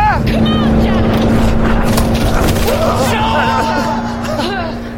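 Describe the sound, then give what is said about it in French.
A jeep engine rumbles steadily, a loud continuous drone that holds throughout and eases slightly near the end, with indistinct voices over it. “Sautez de la jeep”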